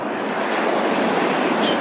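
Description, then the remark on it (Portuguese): Loud, steady wind noise roars across the microphone for the whole moment, a dense continuous rush with no pauses and no voices. “Muito barulho de vento.”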